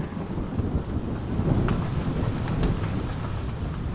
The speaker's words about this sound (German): Durch deine Lieder kannst du die Blitze zucken sehen. Das darauffolgende Donnern verrät dir, dass der Sturm schon ganz nah ist. Du genießt die Geräusche, die von außen hereindringen.